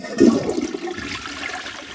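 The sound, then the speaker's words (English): A toilet flushes, opening with a loud gurgling rush of water that settles into a steady hissing drain over two seconds, with no voices. “One of the flashier ones is”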